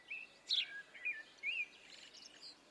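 A sparrow chirps in a few short, high, bright bursts with brief pauses between them, fairly soft and alone with no voices.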